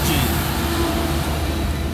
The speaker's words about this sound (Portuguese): Gente, eu tô na Via Dutra, vai ter caminhão pra caralho passando aqui. São 5 horas da manhã.